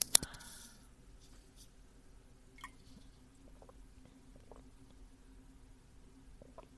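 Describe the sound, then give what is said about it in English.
A sharp clink opens, followed by quiet, scattered drips and small liquid splashes as someone gets more water and sips it, over a low steady hum with no talking. “First of all, oh I need to get some more water.”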